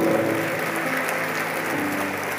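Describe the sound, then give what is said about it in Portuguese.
An audience at a pastor's sermon applauds steadily for a couple of seconds, praising God at the pastor's call, a dense, even wash of many hands clapping at constant loudness, with a faint sustained low tone running underneath. “Se você crê nisso, aplaude esse Deus maravilhoso e soberano.”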